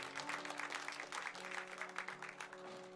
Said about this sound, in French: Bonne fête à vous, mesdames. On peut les applaudir. Bonne fête à vous